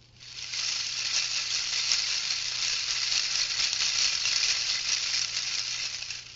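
Hanging colorful plastic guitar picks clatter together like a wind chime, a dense, continuous plastic rattle with a bright hissing shimmer that holds steady for several seconds, with no voices.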